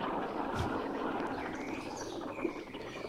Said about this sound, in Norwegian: Vi har bl.a. lagt inn noen fugler her.